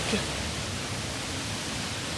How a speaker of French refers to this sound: It's dark and threatening. And can you hear the waterfall, la cascade at the back of the grotto? Et il faut d'ailleurs savoir que la cascade est un peu plus faible qu'elle n'était à l'ouverture du parc, puisqu'on l'entendait depuis l'entrée du parc.